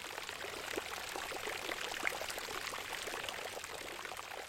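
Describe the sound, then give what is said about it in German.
Water pours and splashes steadily from a fountain in Munich, a continuous bright rushing with small irregular spatters, even in loudness throughout, with no voices. “Alle haben ihre eigene Geschichte und sie plätschern auch in ihrer eigenen Brunnensprache.”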